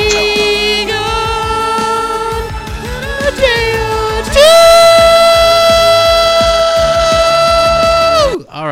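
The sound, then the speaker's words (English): A man sings a long, loud sustained note over a beat-driven backing track, then leaps higher and strains to hold the top note for several seconds before abruptly cutting off. “uh, let, me, let me see if I can get the high note going here.”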